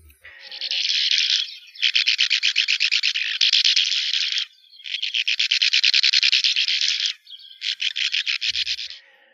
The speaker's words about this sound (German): Also hier die Uferschwalbe. Klar, die wollen wir schon hören.